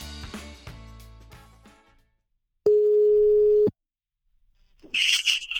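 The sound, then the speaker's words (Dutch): A fading bit of music gives way to silence, then a single loud, steady telephone ringing tone lasts about a second, followed by crackly line noise as the call picks up. “Blijf dan nog even luisteren, want we belden een tijdje later op om te vragen hoe het nu gaat. En dat telefoongesprek ga je nu horen.”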